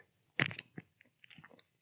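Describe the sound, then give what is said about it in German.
Quiet mouth noises of someone sipping a drink: a wet slurp followed by a few soft gulps and clicks, then a final brief swallow, with no talking. “Ich trinke auch gerade mal noch einen Schluck.”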